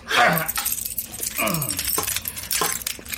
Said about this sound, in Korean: 빨리 문 열어보세요. 어, 열쇠로 열어야 하는 거네요? 아, 맞다! 열쇠! 제가 전해준 그 열쇠! 어, 알았어요.